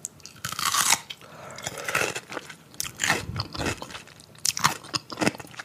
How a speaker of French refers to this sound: Certains vont même jusqu'à écouter des femmes qui mangent des gros cornichons.